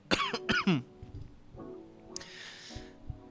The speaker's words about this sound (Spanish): Partículas caquiles se mezclaron con el humo y Pup cabrón, me di esa cacha hija de puta, pup, tose, tose, tose